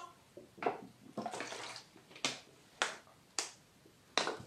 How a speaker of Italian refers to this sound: Adesso bevo un goccino d'acqua, scusatemi un attimo.